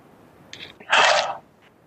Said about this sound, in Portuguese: mas até para eu poder ah, tomar aqui uma água.